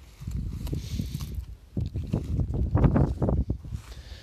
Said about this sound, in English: But I wish this wind would stop. I just want to sit on this boat. I'm at the lake now.